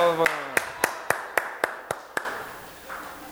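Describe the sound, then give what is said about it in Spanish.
After a call for a round of applause, a lone person claps about eight times in a steady, fairly quick rhythm, each clap sharp and crisp. A voice trails off just as the clapping begins, and the claps then stop abruptly. “Nomás yo aplaudí.”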